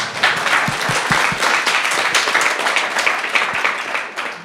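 An audience applauds steadily, a dense wash of many hands clapping at once, holding an even level throughout with a few sharper individual claps standing out.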